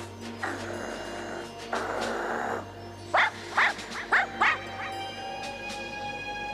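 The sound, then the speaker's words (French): Milou, the dog from the Tintin albums, growls in two low, rasping stretches, each lasting about a second, followed by four short, sharp barks in quick succession. There is no talking, only a faint steady hum underneath. “on entend bien Milou, euh, qui ressemble effectivement à certains grognements sur l'album”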